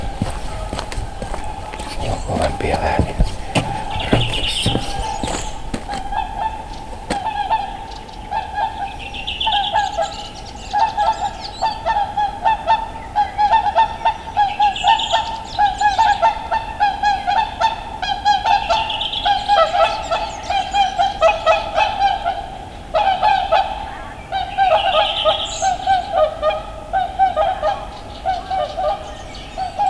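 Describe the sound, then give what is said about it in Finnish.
Loud, repeated honking calls from a flock of swans flying overhead sound in bursts every few seconds over a steady background hum, with layered bugling notes overlapping throughout. “Joo, yritin kovasti äänittää ja kyllähän siinä sillä tavalla kävi, että sieltä tuli joutsenet ja ne otti äänitilan hetkeksi haltuun.”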